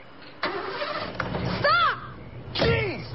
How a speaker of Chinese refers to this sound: 他发动了汽车